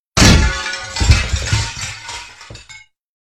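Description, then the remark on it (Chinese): A loud crash of a shop window being smashed with a piece of glass, followed by a couple of seconds of tinkling, scattering shards with a few smaller clinks near the end before it goes silent. “原来犯人是用玻璃将橱窗打碎的，难怪找不到证物。”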